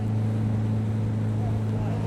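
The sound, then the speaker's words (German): A patrol boat's motorboat engine drones steadily, a low constant hum with strong tonal bands, running unbroken throughout with no talk, as rangers patrol a river in Kakadu National Park. “Im Kakadu-Nationalpark nehmen mich die Ranger Gary und Fred mit auf Streife. Bloß nicht die Hand zu weit aus dem Boot halten”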